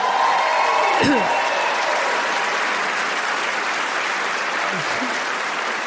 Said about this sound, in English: could you clap or say something nice? I'm over here being a big boy and shit. Cheer for me